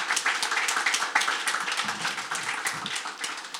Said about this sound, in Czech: tady ještě bude a můžete mu zatleskat.